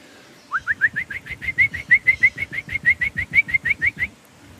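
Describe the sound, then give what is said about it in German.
A person imitates a black woodpecker's typical flight call, the call it makes while flying: a fast, even series of about twenty short, rising, whistled notes lasting around four seconds, fairly loud with no talking. “Ich könnte jetzt einen Schwarzspecht nachmachen, so einen typischen Ruf, während er fliegt.”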